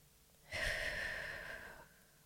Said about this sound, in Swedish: Men vi sätter oss bekvämt med eh, rak rygg och avslappnade axlar och stänger ögonen. Och så tar vi tre djupa andetag.